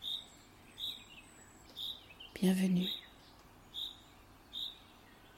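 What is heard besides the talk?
birdsong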